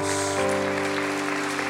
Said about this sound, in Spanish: Alguien alaba el nombre del Señor. Alguien dale un aplauso a Jesús.